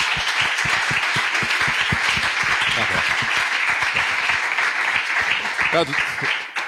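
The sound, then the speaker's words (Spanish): An audience breaks into sustained applause, a dense, steady wash of many hands clapping at full volume throughout, with a brief voice or cheer rising near the end. “Así que, por favor, un aplauso aquí, que peinado que es.”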